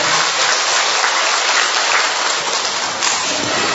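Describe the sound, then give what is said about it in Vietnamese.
An audience applauds loudly to congratulate all who have Saint Andrew the Apostle as their patron saint, a dense, steady wash of many hands clapping together that carries on evenly for several seconds with no voices over it. “Thánh Andre là bổn mạng của nhiều tổ chức, nhiều nhóm, nhiều tập thể và nhiều cá nhân trong tâm tình hiệp thông, chúng ta cũng chúc mừng tất cả những người nhận Thánh Andre Tông Đồ làm một mạng, một trong pháo tay thật lớn của anh chị em.”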